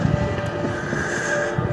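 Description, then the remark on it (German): A train pulls into a railway station on a windy day, rumbling steadily with a low, continuous drone and a faint high tonal whine, with no one speaking. “Ich stehe jetzt am Bahnhof. Bahnhöfe sind etwas Wunderschönes. Überall auf der ganzen Welt. Und warte, bis der Zug einfährt.”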